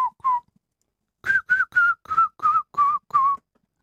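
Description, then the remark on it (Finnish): A person whistles a short tune: two quick notes, a pause, then seven steady, evenly spaced whistled notes, each carrying an audible breathy hiss of air. “Niin siinä tulee se, tuo suhina, vihellyksen suhina tulee mukaan.”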